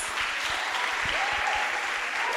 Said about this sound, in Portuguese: Uma salva de palmas.